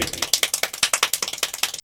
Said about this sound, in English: The speed clappers do like a swimming fish technique to clapping your hands.